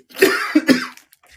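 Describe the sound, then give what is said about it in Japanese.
A brief coughing fit from a person with a sore throat: three harsh, raspy coughs in quick succession, fairly loud, then a faint breathy trailing sound and quiet. “咳込む。”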